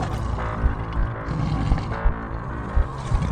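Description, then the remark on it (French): A deep, rumbling roar fills the whole stretch, loud, with gravelly low pulses swelling and easing every half second or so. No one speaks over it. “Alors rugis sur l'équipe adverse.”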